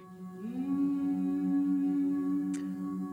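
An actress on a theatre stage hums the play's music: a single sustained low note that slides up briefly at the start, then holds steady and even, with a soft click near the end and no words.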